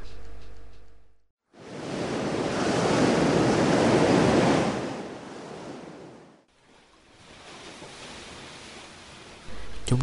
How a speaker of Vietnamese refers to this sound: để nghe tiếng sóng tung mình đập vào đá vỡ tan thành muôn ngàn bọt trắng